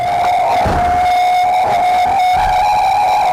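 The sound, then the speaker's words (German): A loud, sustained tonal howl from the vibrating appendages of a racing yacht holds steady near one pitch with bright overtones, droning continuously like a whistle, with faint rushing and rumbling noise underneath and no voices. “Und ja, dann ist das natürlich immer noch laut, weil es rauscht und, und es schlägt auf die Wellen und, ähm, und, und, und es, es gurgelt und es, es macht alle möglichen Wassergeräusche, aber nicht mehr dieses Heulen der Anhänge, die vibrieren”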